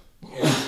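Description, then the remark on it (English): A single sneeze bursts out after a brief silence, a sharp, breathy, fairly loud blast that quickly fades, with no one talking. “bless you, yeah.”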